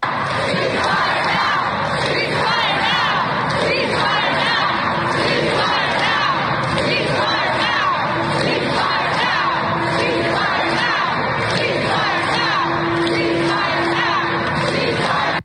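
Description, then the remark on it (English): A large crowd of protesters chants and shouts continuously in a rotunda, voices blending into a loud, echoing roar, with rhythmic collective cries rising throughout. “So a lot of people were saying, uh, were these really Jews who were in the rotunda, or were they actors? But uh, here, here's what it sounded like.”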